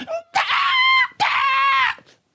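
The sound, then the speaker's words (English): A voice imitates a baby's wailing scream for milk in two loud, sustained bursts separated by a short breath, shrill, with no other speech. “They will scream their lungs out when they need milk.”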